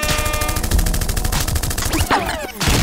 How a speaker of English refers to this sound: Gunshots.